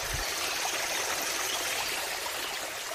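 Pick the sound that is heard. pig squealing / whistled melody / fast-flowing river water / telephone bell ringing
fast-flowing river water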